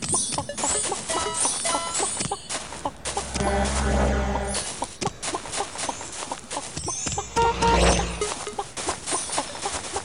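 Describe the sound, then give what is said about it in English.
A chicken clucks in quick, busy bursts, loud, with a sustained squawk midway and more agitated clucking toward the end. “chicken”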